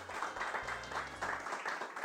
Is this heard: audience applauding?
yes